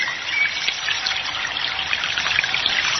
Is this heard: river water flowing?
yes